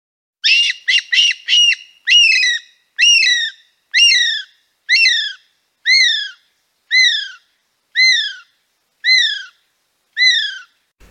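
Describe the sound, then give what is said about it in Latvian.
A very rare nocturnal bird sings alone, starting with a quick burst of short whistled notes, then settling into a slow, steady series of about nine clear, downward-slurred whistles, each repeated at even intervals. “Tur dziedāja kāds naktsputns. Ļoti reti sastopams naktsputns.”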